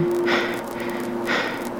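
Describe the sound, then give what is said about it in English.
A man's two slow breaths, an inhale and a long exhale, heard through a noisy, band-limited radio connection with a steady hum running underneath. No one speaks. “There was no answer just his breathing.”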